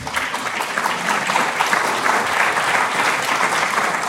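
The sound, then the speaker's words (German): An audience claps steadily throughout, a dense, even patter of many hands at a fairly loud, sustained level with no voices standing out. “Ich finde es gut, dass ihr da klatscht, weil das ist ein wichtiger Punkt.”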